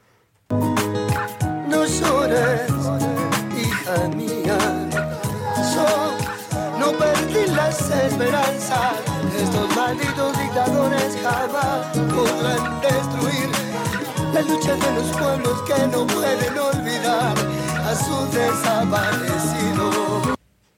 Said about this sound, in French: Nous allons vous passer uniquement le refrain et nous analyserons le texte.